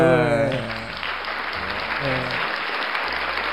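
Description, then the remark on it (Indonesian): Steady, loud audience applause welcoming a guest fills the whole clip, a dense wash of clapping, with a voice briefly calling out over it at the start and again midway. “Kita sambut kita undang langsung kita sambut jadi kita sambut yuk yo aku udah tepuk tangan tepuk tangan tepuk tangan, Ayo, iya, tepuk tangan.”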